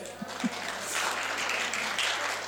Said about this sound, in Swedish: Får jag en applåd nu?